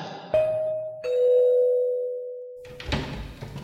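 A doorbell at a studio rings a clear two-tone ding-dong, the second lower note ringing out and fading slowly, followed by a couple of dull thuds like a door being handled.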